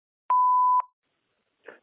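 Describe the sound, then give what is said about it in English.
A single steady answering-machine beep on the Every Little Thing helpline, clear, holding for about half a second with a click at each end, then a pause and a brief faint rustle. “Please leave your wildest animal encounter after the beep.”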